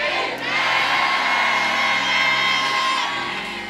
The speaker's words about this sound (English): In Jesus' name. And every Christian shouted, Amen.